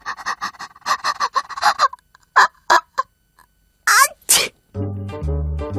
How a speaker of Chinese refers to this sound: 两个怪物突然被喷嚏声给惊醒了。